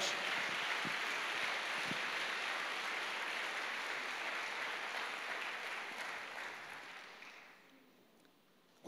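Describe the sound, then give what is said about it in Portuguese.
An audience applauds the presence of the Lord, a dense, sustained wash of many hands clapping together for about seven seconds before the sound tapers off and fades into near silence. “Você pode aplaudir a presença do Senhor entre nós?”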